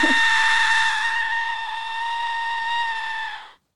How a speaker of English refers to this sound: So that was the Aztec death whistle.